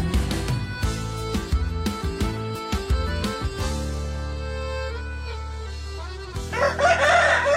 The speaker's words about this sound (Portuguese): Olha o galo, Leonardo. É, olha o galo, Deus do céu. Esse não atrasa, tá ah. tá sempre no horário.